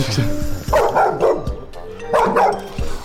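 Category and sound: animal, dog barking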